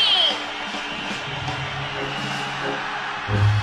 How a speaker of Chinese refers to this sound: 女士们、先生们，Ladies and Gentlemen，现在是大明脱口秀时间，掌声欢迎我们亲爱的